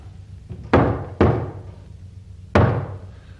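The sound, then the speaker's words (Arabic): Three heavy knocks on a wooden door, two close together and then one after a pause, each landing loud with a short boomy ring over a low steady hum. “دي خبطة الشطر عالي افتح الباب”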